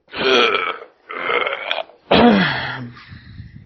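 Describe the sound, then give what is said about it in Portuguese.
A voice imitates vomiting with three loud, rough retching heaves, each a gurgling, belch-like burst about a second long, separated by short pauses, the last trailing into a low rumble. “Você tá vomitando aí”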